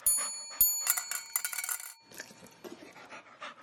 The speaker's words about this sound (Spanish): Cuando era hora de darles comida, Pavlov sonaba una campanita, presentaba la comida y los perros salivaban.